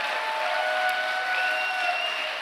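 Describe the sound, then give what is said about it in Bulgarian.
An audience applauds steadily during a sermon, giving glory to God, a dense wash of many hands clapping at an even level throughout, with a few faint tonal whistles or cheers riding above the noise. “Ако отнемаш 30 секунди от тази проповед с ръкопляскане, поне и като че даваш слава на Бога.”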